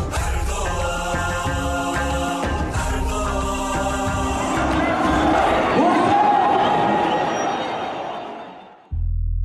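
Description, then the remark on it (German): A large crowd cheers and shouts together in a loud, sustained roar of many voices, swelling through the middle before fading away near the end. “Wir gehen in dieser Folge noch einmal diesem Jubel nach.”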